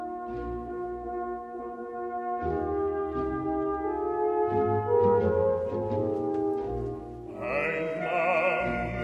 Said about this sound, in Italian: Ascoltiamo questo terzetto per farci un'idea.